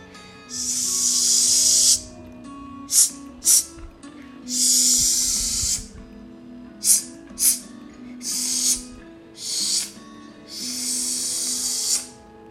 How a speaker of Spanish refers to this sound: De pronto, comenzó a escuchar un ruido como si algo se deslizara por el piso.